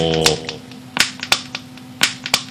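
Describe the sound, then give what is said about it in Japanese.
A plastic PET bottle is squeezed and handled, giving five or so sharp, crackling pops at uneven intervals, fairly loud, after a brief trailing voice at the very start. “ペットボトルのシールをついに最初ペットボトルをえっ、ー、となんですかね、えーペットボトルこんな風にこういうのはずっと一個隣で聞こえてたんですよもう気が散るでしょ”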